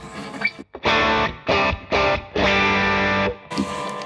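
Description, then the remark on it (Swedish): An electric guitar played through an overdrive pedal plays four thick, sustained chords in a loose rhythm, each ringing with gritty harmonic saturation before cutting off, the last held longest. “som den är ställd nu så är den ganska basig, eller snarare så är den kanske mer neutral än vad en Tube Screamer är”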